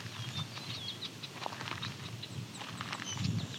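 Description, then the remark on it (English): Faint eastern meadowlark song: clear slurred whistles drifting in the background over a steady bed of rustling and patter, with no voices. “You can hear the eastern meadowlark singing in the background.”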